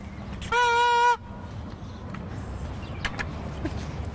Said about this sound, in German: Wenn Männer ins Stadion gehen, nehmen sie eine Tröte mit.